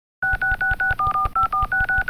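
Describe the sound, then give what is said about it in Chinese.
A rapid run of mobile phone keypad dialing tones used in a song's intro after a medieval-chant-like opening, about ten crisp beeps in steady rhythm, each a bright two-pitch electronic chirp, with a low rhythmic thump underneath and no voices. “手机的那个打电话的铃声呢？”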